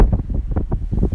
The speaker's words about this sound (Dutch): Het waait hier nogal.